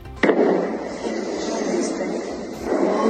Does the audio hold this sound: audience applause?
no